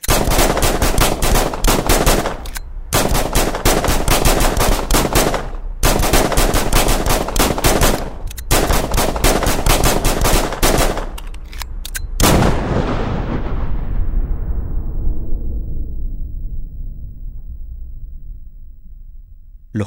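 Four police officers fire 59 shots on Bernal Heights hill: loud, rapid gunshots in dense volleys for about twelve seconds, broken by a few brief pauses, then stop abruptly and leave a long echo that slowly fades away.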